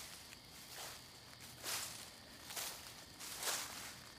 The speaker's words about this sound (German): Schritte, die sich ihren Weg durch das knisternde, trockene Laub bahnten, verkündeten den Abgang der beiden mysteriösen Personen.